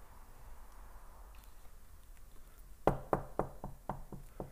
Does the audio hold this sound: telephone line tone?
no